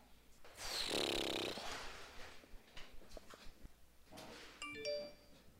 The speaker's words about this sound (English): This is the sound of obsessively updating your inbox.